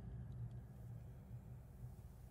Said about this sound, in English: Sorry, that's the ambulance I just pulled up outside. Did you hear it? the snowmobile. the snowmobile ambulance.